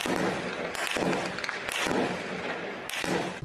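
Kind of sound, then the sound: impact, bursts of gunfire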